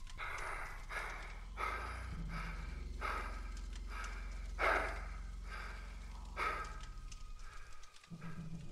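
Heavy, labored breathing of a man riding in the back seat of a car rasps in a steady rhythm of about ten wet, gurgling pulls, each one loud, over a low droning background with no talking.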